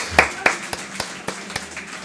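A few sharp handclaps in a steady, even rhythm, about eight in two seconds, fairly crisp, with no voices over them.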